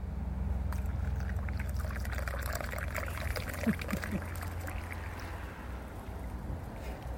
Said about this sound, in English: the sound of Earl Grey tea being poured at Wickham Market railway station on one of our many cycle stops. Just, just to clarify what that actually was.